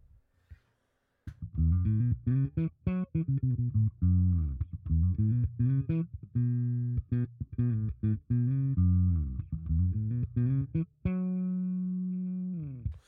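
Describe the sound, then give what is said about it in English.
An electric bass with a new preamp, controls off and both pickups at 50%, plays a busy riff of low, punchy notes with a warm, rounded tone, then settles on one long sustained note that rings out and fades. No voices. “It's got way less of an aggressive sound to what it used to have, and I think it really suits it.”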